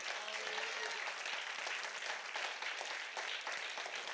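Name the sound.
audience applauding in praise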